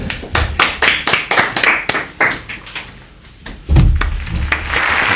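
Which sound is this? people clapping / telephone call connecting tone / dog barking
people clapping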